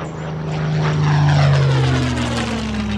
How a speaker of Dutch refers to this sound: Onder u, vliegtuigen. Liggen, liggen, liggen ze gaan schieten.